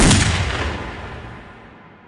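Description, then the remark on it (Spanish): A loud pistol shot cracks out at the start as one man fires a pistol at another, then a long rumbling echo fades away over the next two seconds. No voices are heard. “sin importarles que los vieran, uno de ellos sacó de la nada una pistola y comenzó a dispararle al otro.”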